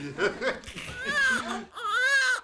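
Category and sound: human body sound, newborn baby crying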